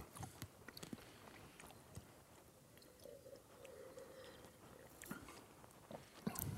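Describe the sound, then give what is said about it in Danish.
Wet chewing of strawberries, with irregular moist squelches and small crunchy bites repeating throughout, fairly quiet and alone without any talking. “Nå, men skal vi prøve at guffe lidt noget jordbær? Vi, vi guffer nogle jordbær.”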